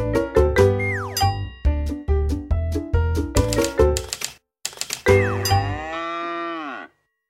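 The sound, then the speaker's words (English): Typewriter keys clack in quick, uneven bursts over bright musical tones, with a sliding moo-like call, then a pause and a long, drawn-out lowing tone that fades, for the picture book Click, Clack, Moo: Cows That Type by Doreen Cronin and Betsy Lewin, where cows type. No one speaks. “His cows like to type. All day long he hears click, clack, moo.”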